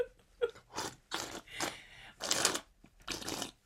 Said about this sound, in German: so laut warst du bisher noch nie beim Schmatzen. Das schmeckt ganz gut.